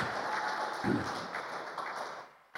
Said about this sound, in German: Give the Lord a hand of praise. Gebt dem Herrn mal einen kräftigen Applaus.